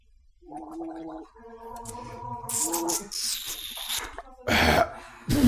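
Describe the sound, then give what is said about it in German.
Someone gulps down half a litre of beer in a long, steady run of wet, gurgling swallows with a throaty hum, followed by a few breathy, sputtering bursts as the drinking finishes. “Ach, ah, guck mal, er trinkt direkt noch einen halben Liter Bier hinterher.”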